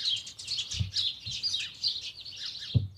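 A dense chorus of many birds chirping and tweeting outdoors on a terrace on a fine summer day, overlapping high calls filling the scene continuously, with a few soft low thumps or bumps.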